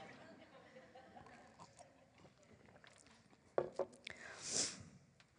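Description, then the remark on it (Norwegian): Someone sips a little water during a pause in speaking: a few quiet mouth clicks and swallows, then a soft breathy exhale after the drink, with faint murmuring in the background. “Dere kan snakke om hvor fint dette her er mens jeg drikker litt vann.”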